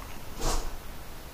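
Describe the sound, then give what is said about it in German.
A single short sneeze, a breathy, hissing burst lasting a fraction of a second that stands out against a quiet background with no talking. “die hat genießt.”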